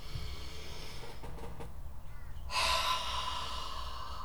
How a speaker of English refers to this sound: That's breathing in through the nose, filling up your lung cavity as much as you can, and then breathing out through your mouth. So it sounds like this.